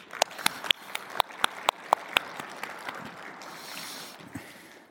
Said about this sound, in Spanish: ¿Por qué no le damos un aplauso a todos los organizadores?